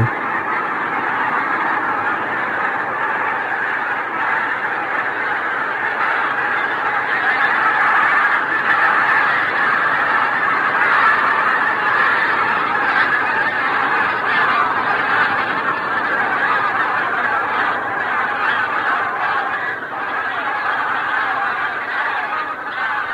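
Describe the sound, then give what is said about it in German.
A dense, continuous din of thousands of honking geese mixed with lapwings, ruffs, gulls, sandpipers and ducks all taking flight at once as a white-tailed eagle crosses a bay, the huge flock clamoring at steady loudness for the whole stretch, with no one speaking. “das alles aufflog, weil ein Seeadler diese Bucht kreuzte und Tausende von Gänsen und Kiebitzen und Kampfläufern und Möwen und Strandläufern und Enten gleichermaßen alle im selben Moment aufflogen.”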